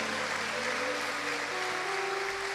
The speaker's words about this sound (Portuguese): Você pode aplaudir a Jesus, irmãos, por essas duas lindas almas.